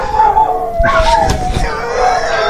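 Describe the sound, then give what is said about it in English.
Dogs howling in response to sirens, sustained wavering tones held steadily throughout, with a burst of louder yelping howls in the middle, prominent. “Oh, my dogs are howling. They're sirens.”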